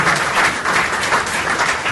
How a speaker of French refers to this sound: on va pouvoir applaudir nos quatre intervenants.